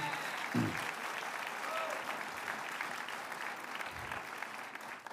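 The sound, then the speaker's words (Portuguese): A church audience applauds steadily for Jesus, a dense wash of many hands clapping at an even level throughout, with a few faint voices and calls mixed into the clapping. “Dê para Jesus uma forte salva de palmas, amém?”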